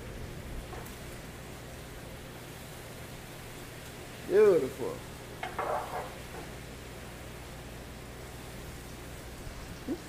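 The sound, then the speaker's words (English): A wok sizzles with a steady, crackling hiss after Chinese cooking wine is added, running the whole time at a moderately loud level, while a man briefly speaks over it midway. “Hear that sizzle.”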